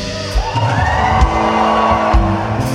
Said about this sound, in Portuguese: Eu quero ouvir o grito dos matadores de gigante aqui nessa noite.